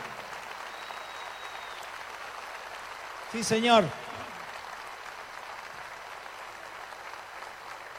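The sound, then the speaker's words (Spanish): An audience applauds in a steady, even wash of clapping that lasts the whole stretch, while a man's voice briefly calls out a short phrase partway through. The applause is a tribute to Argentina's national heroes and the Malvinas combatants. “Los que se sientan orgullosos de ser argentinos, los invitamos a este homenaje que le vamos a brindar a nuestros próceres, a nuestros combatientes de Malvinas, a todos aquellos, un aplauso para ellos.”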